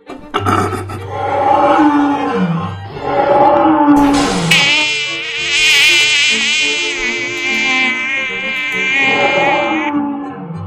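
A mosquito's wings buzz in a loud, high-pitched whine that wavers up and down for several seconds, following a few lower growling, roaring sounds at the start.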